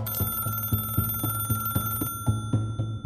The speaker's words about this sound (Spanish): Pocos días después, el teléfono volvió a sonar.